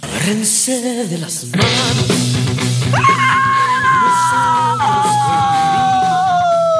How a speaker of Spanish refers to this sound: Así como acabaste de gritar.